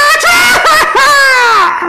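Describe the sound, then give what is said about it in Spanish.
A loud, exaggerated vocal imitation of a sneeze: a few choppy, strained 'ah' bursts building into a long, drawn-out cry that falls in pitch, performed alone. “Y de repente, cabrón Escuchamos un estornudo, güey, pero de esos de.”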